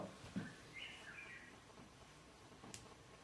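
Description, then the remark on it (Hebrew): A bird chirps faintly, a couple of brief warbling calls over a quiet background, followed by a single sharp high tick near the end. “הציפור אומרת לנו שהגיע הזמן של השעיים ב...”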